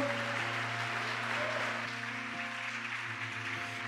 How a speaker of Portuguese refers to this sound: Aplauda o Senhor.